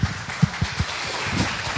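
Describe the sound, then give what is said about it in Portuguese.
An audience applauds, a steady, dense crackle of many hands clapping together at moderate loudness, with a few heavier claps standing out over the continuous patter. No one speaks. “Gente, uma salva de palmas para ele.”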